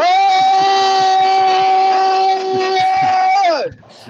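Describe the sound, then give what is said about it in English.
A loud, sustained voiced roar from debate candidates imitating a lion, held steady for several seconds before sliding down in pitch and cutting off, with faint rhythmic purring-like rumbling underneath. “I heard a little bit of purring and a really big roar there.”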